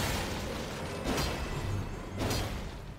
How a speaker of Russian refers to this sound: Бабах.